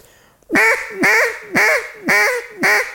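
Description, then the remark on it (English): A duck call blown in the fine hen style: a quack repeated five times in a steady rhythm, each note short and bright with a slight rasp, clear with no talking over it. “The different ducks. You got the fine, you got the coarse, you got the raspy, and you got the boss hen.”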